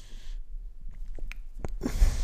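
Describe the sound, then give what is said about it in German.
A short, breathy sneeze burst out in a sharp rush of noise, followed by a few small clicks and sniffs, then a second hissy burst at the end; no one speaks. “Gesundheit.”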